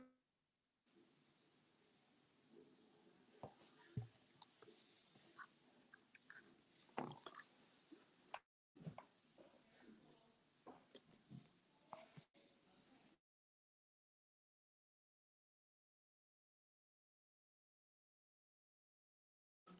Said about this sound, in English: You you were talking and you just went blank